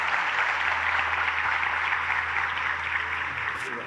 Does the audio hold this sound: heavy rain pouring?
no